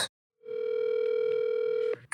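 A telephone dial tone, heard while placing a call, sounds as one steady, loud, mid-pitched hum for about a second and a half, with brief clicks before it starts and just after it cuts off.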